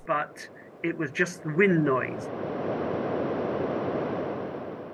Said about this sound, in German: Januar 2005. Die Raumsonde Huygens landet auf dem Saturnmond Titan. Es ist die erste Sonde mit einem Mikrofon an Bord. Huygens hat etwas aufgenommen, aber das waren nur die Windgeräusche auf Titan.